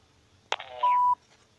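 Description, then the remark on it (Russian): A sharp click and a brief rustle, then one steady mid-pitched electronic beep lasting about a third of a second, a phone keypad tone as a number is dialed to call Mr. Paznik. No one speaks. “Звоним господину Пазнику на номер, который нам дали.”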